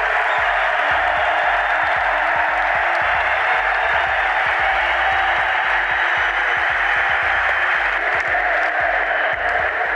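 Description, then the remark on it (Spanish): A large crowd at a rally applauds steadily for the full stretch, an ironic applause aimed at those who say they are divided, a dense, loud wash of clapping with scattered sharper claps and faint cheering mixed in, no one speaking over it. “Yo quiero que les dediquéis un aplauso irónico a todos esos que dicen que estamos divididos.”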